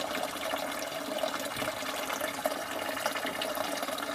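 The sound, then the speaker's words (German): Spring water from a mountain spring in Ruppolding pours steadily into a bottle, a continuous bubbling splash with a slowly rising gurgle. It sounds fairly quiet, with no voices. “Hier kann man auch selber abfüllen.”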